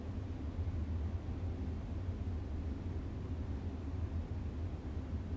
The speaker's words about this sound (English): perhaps just noticing the gentle hum of the air conditioning.